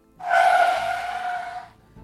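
A sharp, loud tire screech as a white minibus brakes suddenly and stops beside a waiting Seat Leon and BMW on a deserted road at Gülpınar near midnight, a strained harmonic squeal lasting about a second and a half before cutting off abruptly, with no voices.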